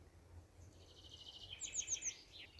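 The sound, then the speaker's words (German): Birds sing outdoors in a forest, a series of high, quick chirps and trills repeating over a soft, low background rumble with no talking. “Was hörst du jetzt im Außen? Bei mir sind es, wie gesagt, zum Beispiel die Vögel.”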